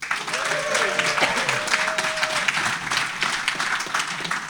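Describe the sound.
Audience applause at a summit at sea, from people who benefited from a speaker's legal information: a steady, dense patter of many hands clapping at once, sustained and fairly loud, with faint voices and a brief tonal murmur mixed underneath.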